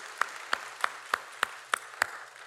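Seven slow, evenly spaced hand claps land about a third of a second apart, each a crisp, sharp smack over a quiet, low background hum with no talking.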